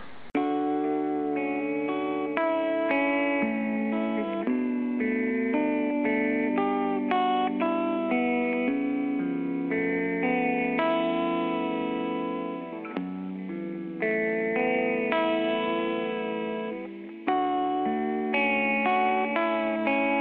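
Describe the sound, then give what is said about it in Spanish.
A steady music track with effected electric guitar, chorus-like shimmer and some distortion, playing continuously at a fairly loud, even level, with a brief dip before it resumes. “vamos a los sonoro del sonido en la música y ya estamos escuchando …”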